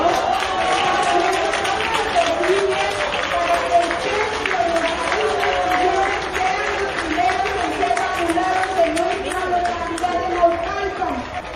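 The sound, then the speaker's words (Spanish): A crowd applauds president Andrés Manuel López Obrador steadily for about twelve seconds, a dense, loud patter of many hands clapping, with raised voices and cheering carrying over the noise throughout. “Un aplauso también a nuestro presidente Andrés Manuel López Obrador.”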